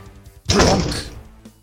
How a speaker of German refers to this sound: Und die Tür schlägt zu.